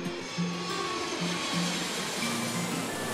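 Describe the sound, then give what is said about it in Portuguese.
Steady, loud airplane engine roar filling the whole clip, a dense rushing hiss with a low droning hum and faint shifting tones, and no voices. “Olha aí, o último som de avião, hein?”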